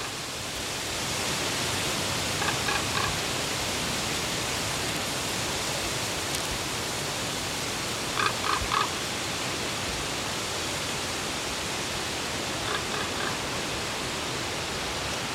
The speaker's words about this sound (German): Hi Leute, erst nochmal erster kurzer Geräuschnachtrag. Hier hören wir einen Vogel.